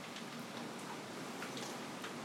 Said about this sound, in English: Okay, rain's picking up.